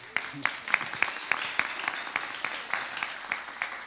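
An audience breaks into applause, a dense wash of many hands clapping with a few sharper individual claps standing out in a quick, irregular rhythm, steady and moderately loud throughout.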